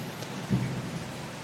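Steady, hissing rain fills the background, joined by a brief, low rumble of thunder partway through; no voices are heard.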